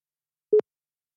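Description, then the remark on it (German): A single short electronic phone tone, one brief mid-pitched beep with a faint buzzy edge, sounding alone against silence with no voices. “Und schon klingelt so.”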